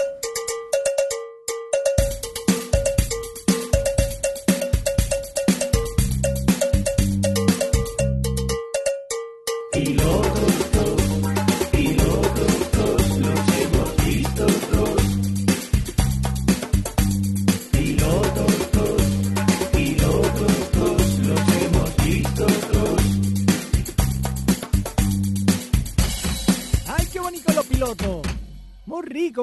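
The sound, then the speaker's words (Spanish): A radio-style section jingle introducing the pilots segment of a Spanish-language show: loud, upbeat music with a steady percussive beat and bright cowbell-like hits, a brief break near the start before a fuller, busier stretch. No one speaks. “Y estoy haciendo tiempo porque no encuentro el indicativo.”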